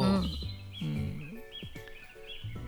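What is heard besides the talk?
birds singing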